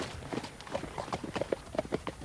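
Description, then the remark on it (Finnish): Horse hoofbeats clip-clopping in a quick, uneven trotting rhythm, a steady run of sharp knocks at moderate volume with no voices, as Joonatan rides the horse away and disappears into the fog. “Ja minä seisoin portin pielessä ja näin Joonatanin ratsastavan pois ja katoavan sumuun.”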